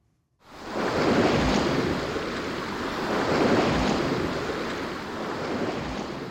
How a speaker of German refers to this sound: Die Bewegung der Welle wird unten am Grund gebremst, die Welle türmt sich auf, bevor sie tosend bricht zur Freude von Surfern.